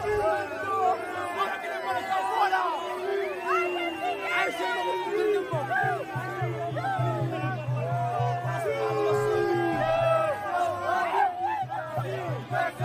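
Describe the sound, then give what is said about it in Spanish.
A large crowd celebrating on Las Ramblas shouts the drawn-out "siu" celebration chant of Cristiano Ronaldo, many overlapping voices rising and falling in a loud, continuous roar like a howl, with a steady low hum underneath throughout. “Ah, a ver cómo lo explico esto escucho como el siu de, Cristiano Ronaldo amplificado, ¿no?”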